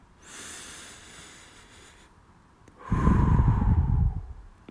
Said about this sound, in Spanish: Es, es tu deber respirar tranquilamente y tener una respiración como de